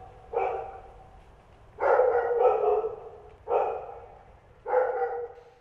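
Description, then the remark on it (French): A dog barks four or five times in short, spaced bursts, loud, with a low rumble underneath and no one talking. “Il était une fois un chien très pauvre qui voulait devenir un roi.”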